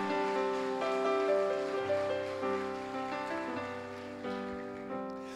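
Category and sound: crowd, audience applause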